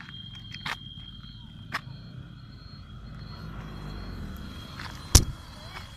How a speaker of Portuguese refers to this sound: Vamos ver se esse carro nos, leva.